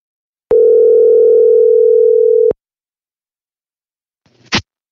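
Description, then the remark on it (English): A single steady ringback tone from an outgoing prank phone call to friends, placed from a producer's phone, sounds for about two seconds, followed by silence and then a short, sharp click near the end. No one speaks. “let's uh prank call uh some friends of ours that and see what they've got going on.”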